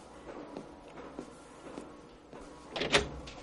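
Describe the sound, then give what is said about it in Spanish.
A few soft, evenly spaced footsteps, then a door opens with a louder latch click and a brief scraping swing near the end. No one speaks. Esther goes to the door, where a mechanic is waiting outside. “Esther va a la puerta.”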